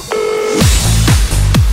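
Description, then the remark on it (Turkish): A short steady telephone line tone sounds as a call connects, then three quick falling electronic chirps follow in a regular rhythm, loud, with no voices. “Pusuladasınız ve yine bir telefon bağlantısının zamanı geldi.”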